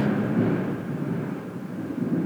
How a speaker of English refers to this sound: Did y'all hear that fucking thunder? I just like shit myself.